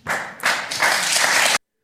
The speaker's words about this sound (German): Das Publikum klatscht